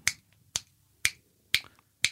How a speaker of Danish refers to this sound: så kan man få dem til at bevæge sig igen. Simpelthen ved at knipse? ved at knipse som en metronom.